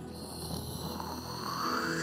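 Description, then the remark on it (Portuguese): A voice mimics the speaker's home shower head sputtering and hissing after its handle is turned and turned, before the water flows: a steady, breathy, rattling rush lasting about two seconds, rising slightly in pitch and loudness toward the end. “Aí daqui a pouco você começa a ouvir assim.”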